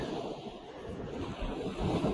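Waves washing onto a beach in the town of Yoichi, Hokkaido, heard during a walk along the beach, in a steady, broad roar, blended with wind buffeting the microphone and swelling slightly louder toward the end. No one speaks.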